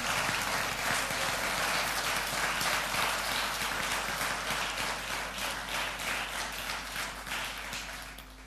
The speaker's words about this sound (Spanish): Quien le da un aplauso al Padre en esta noche.